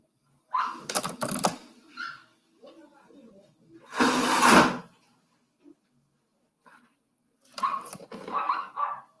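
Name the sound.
window being closed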